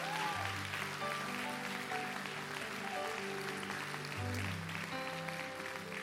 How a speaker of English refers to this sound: Clap your hands to the Lord today in faith and victory, guys.